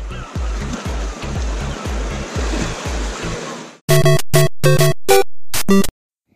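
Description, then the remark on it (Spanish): A steady roar of Caribbean Sea surf fills the first few seconds, with a regular low thumping underneath, then it cuts off and gives way to short, loud bursts of bright tonal sound. “Acompañen a estos dos imberbes, padre e hijo, a través de cócteles de camarón, sol, arena y el mar Caribe.”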